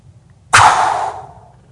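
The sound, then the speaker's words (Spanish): A single forceful, breathy exhale bursts out suddenly and loudly, a broad rushing hiss that holds for about half a second and then fades away, with no talking around it. The air is blown out hard with the abdominal muscles, as if to blow out a candle. “Soplarla con la fuerza del, estómago, los músculos abdominales, usando um, el aire.”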